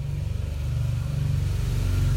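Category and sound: vehicle, motorcycle passing by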